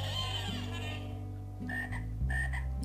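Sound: frog croaking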